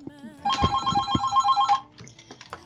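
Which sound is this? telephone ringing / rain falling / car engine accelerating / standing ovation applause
telephone ringing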